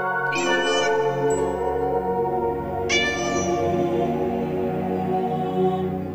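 A cat meows twice, loud, with the drawn-out cries a couple of seconds apart over a steady low background hum.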